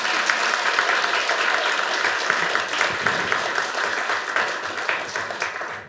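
A live audience at a taped show claps steadily for several seconds, a dense, even wash of many hands filling the whole clip with no voices standing out, fading slightly at the very end.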